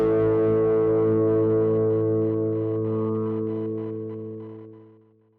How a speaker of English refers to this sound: Oh, I like the guitar. Yeah, you said that before. Have you actually heard it now? Yeah, you played it. Oh yeah, I played it for you. That's good. Um, I had fun making that one.